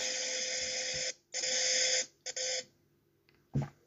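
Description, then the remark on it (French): A vacuum cleaner whines loudly in several bursts, switching on and off, with short pauses between runs and a final brief surge near the end. No one speaks. “Ah, l'aspirateur de Pessar.”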